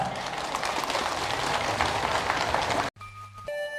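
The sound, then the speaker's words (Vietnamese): An audience of Buddhist laypeople claps steadily in a dense, sustained wash of applause for about three seconds, then it cuts off abruptly into a brief tonal musical passage. “và với ờ, những lời ờ, tha thiết kêu gọi như thế chúng tôi rất mong các quý phật tử hưởng ứng và thể hiện sự hưởng đó xin tất cả chúng ta hãy dành một tràng vỗ tay thật lớn”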